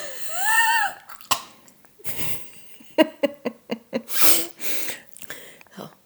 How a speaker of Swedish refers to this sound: Andas in två gånger genom näsan. Utan att andas ut.